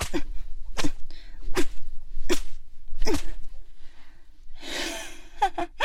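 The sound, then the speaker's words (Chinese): Five sharp whip lashes crack in a steady rhythm, under a second apart, as a man held as a spy is whipped during interrogation, followed by a breathy, strained gasp and a short pained vocal sound. No speech is heard. “我刚才那一鞭子，还没有叫你知道我的厉害。”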